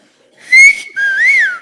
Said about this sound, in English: Okay, make people listen. Obviously, maybe not like that. Maybe like that, okay? We don't want people getting distracted by wolf whistles on the street, but we want to listen.